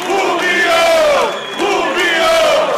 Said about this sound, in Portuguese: Esse grito traz o sentimento de uma geração inteira que torceu, sofreu e vibrou com o Rubinho, não só lá em Interlagos, não, no mundo inteiro, a cada corrida.